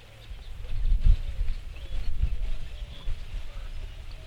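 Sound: eurasian collared dove cooing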